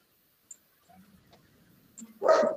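A dog lets out one loud, sharp bark near the end, preceded by a few faint, low rustling sounds and a brief click in otherwise quiet surroundings.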